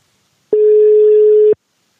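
A single telephone ringing tone of an outgoing call to the man behind Maxix: one steady, mid-pitched beep lasting about a second, loud and alone, starting and stopping abruptly with faint clicks at each end.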